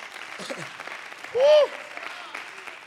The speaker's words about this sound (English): Could you clap your hands under the Lord one more time?